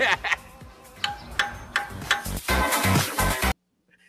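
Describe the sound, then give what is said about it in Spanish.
A hammer bangs on a metal part of a Toyota car engine under repair, about eight sharp strikes in an uneven rhythm with clanging resonance, stopping abruptly into near silence. “Oye, pero no le des más martillazo a esa parte del motor, ¿oíste?”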